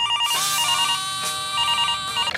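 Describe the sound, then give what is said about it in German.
A telephone rings with a bright, warbling electronic trill that repeats in quick bursts, fairly loud, with no one speaking; a mother is calling her son. “Ein Problem, das die Mama natürlich mit ihrem Buben am Telefon klären muss.”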